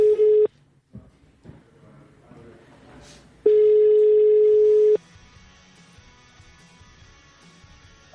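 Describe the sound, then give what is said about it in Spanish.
An outgoing telephone call tone during a radio broadcast, calling a mobile phone: a loud, steady electronic beep that cuts off after half a second, then returns for about a second and a half, with faint background noise in the gaps. “Para variar, siempre un problema técnico con las llamadas.”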